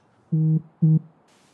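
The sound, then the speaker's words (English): A phone call alert sounds as two short, buzzy electronic tones in quick succession, the first slightly longer, clear and fairly loud against a quiet background with no voices. “Are you really checking your phone?”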